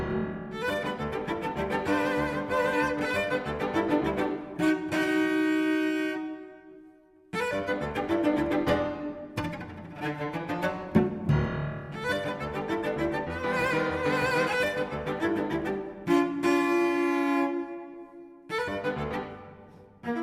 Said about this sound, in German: Und hier kommt nochmal ein richtig musikalisches New Yorker Verkehrschaos mit hupendem Cello und blinkendem Klavier.